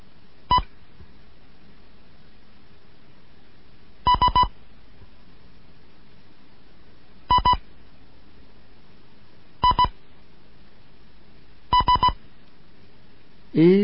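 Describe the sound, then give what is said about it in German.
Short groups of clear, high beeps tapped out in Morse code for a beginners' Morse lesson, separated by pauses of a few seconds, crisp with a faint background hum. “Hier ist Delta Julian 1 Kilo November mit einem Morseunterricht für Anfänger”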